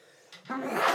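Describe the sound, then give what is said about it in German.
A single sneeze: a short breathy intake that swells into a loud, hissy burst of air at the end, with no talking. “Gesundheit. Ah, bitte antiallergische, bitte.”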